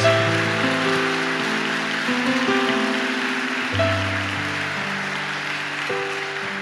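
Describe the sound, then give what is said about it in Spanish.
A church audience applauds for the Lord Jesus in a steady, dense patter that lasts throughout, while sustained keyboard or organ chords hold and shift underneath. No one speaks over it. “Dele fuerte ese aplauso al Señor Jesús.”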